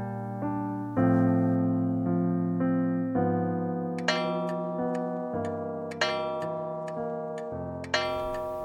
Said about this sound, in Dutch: In de villa waar het gezin van het Hof is binnengevlucht, slaat de klok op de schoorsteen vijf keer.